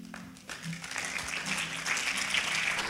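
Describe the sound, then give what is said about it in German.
An audience breaks into applause, a dense, steady wash of many hands clapping that swells after a brief quieter start and carries on at an even, fairly loud level. “Applaus”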